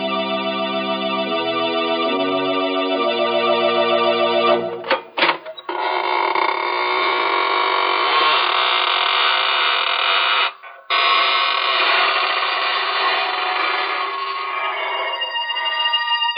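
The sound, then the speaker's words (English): A few seconds of steady, organ-like tones give way to the long, drawn-out creaking door of the Inner Sanctum Mysteries radio show opening, its rasping groan sustained and loud for about ten seconds with one brief break. “This is your host of the inner sanctum inviting you in through the creaking door.”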